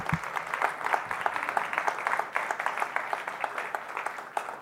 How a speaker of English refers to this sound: Can we give a round of applause to all of our volunteers, our worship team?